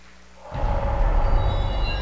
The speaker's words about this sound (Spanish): Palmas al Señor porque Él vive.